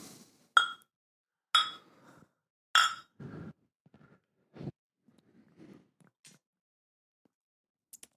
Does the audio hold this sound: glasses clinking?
yes